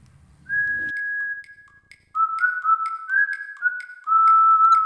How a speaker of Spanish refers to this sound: Una nueva hora se escucha.